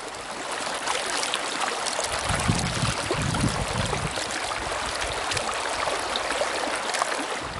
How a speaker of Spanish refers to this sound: Ahora los voy a dejar un ratito a escuchar el ruido del agua. A ver si se aprecia bien. Con todo el sonidito así del agüita y que naturaleza y que no sé qué.